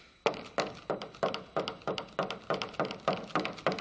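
A steady run of about a dozen firm knocks on a wooden door put up on a set, evenly spaced, each a dull hollow rap with no voices.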